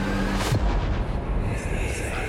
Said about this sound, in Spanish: alguien de la familia dijo, Si sos un espíritu, golpea dos veces. Dos golpes muy fuertes se escucharon en la pared.